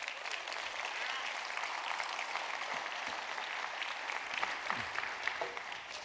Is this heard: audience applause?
yes